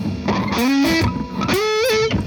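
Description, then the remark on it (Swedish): A heavily distorted electric guitar played through a DS-1 distortion pedal plays a short melodic phrase with sustained, bending notes, its gritty, saturated tone loud with no voices. “Ja, det, det blir för alldeles för mycket störning. Låter som en ds 1 Ja.”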